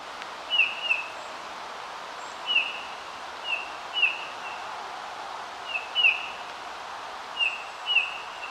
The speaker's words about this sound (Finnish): Punatulkun matala täyteläinen havumetsä huilu.